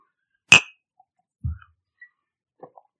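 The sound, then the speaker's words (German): Drinking glasses clink once in a toast, a bright ringing chime, followed by a dull low knock and a few faint small taps in otherwise quiet surroundings. “Aber komm, Prost. Cheers.”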